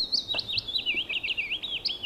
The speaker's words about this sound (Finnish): Mutta halu, haluatko kertoa tai avata tätä jo tässä vaiheessa vähän, että mitä, mitä tästä, miten, miten sä kuulet tämän pajulinnun? nyt?